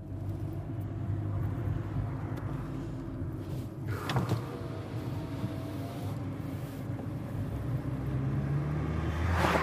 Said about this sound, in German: an dieser beschissenen Dreckslandstraße, wo gerade heute wieder 14 Milliarden Autos vorbeifahren.